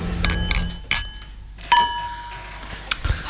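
Champagne glasses clink together in a toast celebrating the SCAM radio discovery prize, several bright strikes, each leaving a clear ringing tone that lingers, with a few softer taps near the end.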